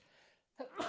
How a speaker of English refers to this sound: Bless you. I just sneezed, man, and I felt it coming for a long time, and I was like, "I'm gonna, I'm gonna, I'm gonna beat this," and you, then I didn't.